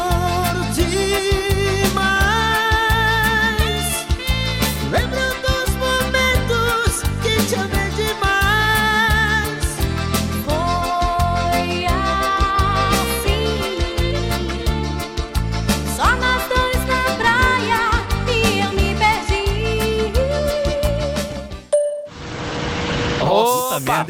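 A forró-style cover of a classic rock song plays loud and continuous, a sung vocal melody over steady, bouncy rhythmic accompaniment, until it abruptly cuts off near the end.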